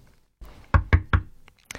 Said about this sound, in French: Vous frappez encore une fois à cette porte et vous prenez un pain chacun.